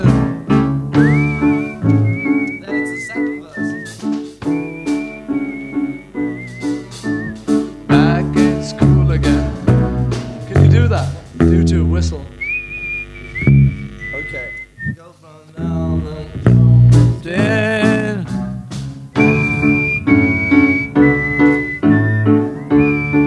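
A clear, high whistled melody, the song's whistled bridge, glides over a full band accompaniment, with sustained whistled notes returning in phrases throughout, loud alongside rhythmic instruments.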